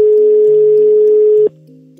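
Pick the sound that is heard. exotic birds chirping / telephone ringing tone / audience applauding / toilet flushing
telephone ringing tone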